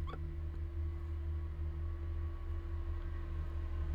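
A heavy truck engine rumbles steadily outside, a deep droning hum with a tonal whine, holding an even loudness throughout with no voices over it.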